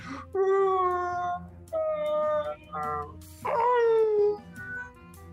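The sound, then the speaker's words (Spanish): A monstrous creature shrieks in pain, rage and panic after being shot twice at point-blank range, four loud, strained wailing cries in quick succession, each sliding downward in pitch, separated by brief pauses. “Entre ira, dolor y, pánico, esta criatura empieza a, gritar de dolor.”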